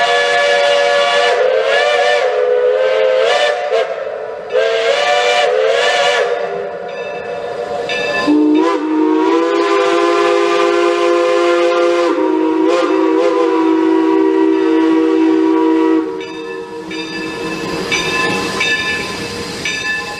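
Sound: train running with whistle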